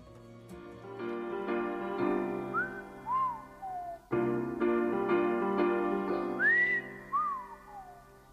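A song's instrumental intro with a clear, melodic whistled tune gliding up and down over steady backing music, the whistle phrases recurring prominently in the foreground.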